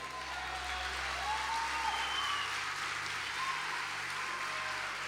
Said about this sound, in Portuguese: Diga graças a Deus e aplauda o Senhor.